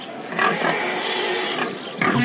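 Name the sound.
pig grunting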